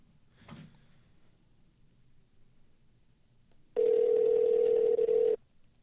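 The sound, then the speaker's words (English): A single loud, steady ringback tone from an outgoing phone call to Bombi Cameron sounds for about a second and a half, preceded by a brief soft click and quiet background. “All right, let me see if uh Bombi Cameron will answer the phone real quick.”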